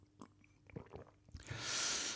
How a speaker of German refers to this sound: Ich schlürfe auch mal. Ich habe hier noch einen Kaffee stehen. Äh, natürlich von Majola.